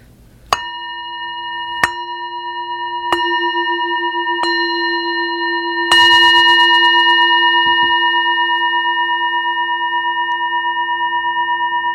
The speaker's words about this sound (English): And one of the teachers of this practice, Pema Chodron, always sounds the gong.